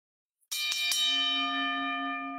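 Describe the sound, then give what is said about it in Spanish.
A bell is struck sharply, with two quick follow-up strikes, then rings on in a long, bright sustained tone that slowly fades. It is loud, with no voices. “Se me era la campana, pero está bien.”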